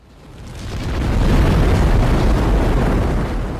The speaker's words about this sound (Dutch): Eh, en dat gaat in principe goed tot het moment dat je te veel stroom gebruikt en de hoofdschakelaar eruit knalt.